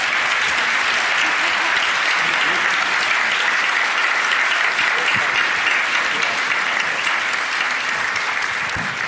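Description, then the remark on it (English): Sustained applause from a large crowd for the panelists at the end of an Intelligence Squared debate, a dense, steady wash of clapping that stays loud and even for the whole stretch, with a few faint voices mixed in. “I think a really massive round of applause for our wonderful panelists.”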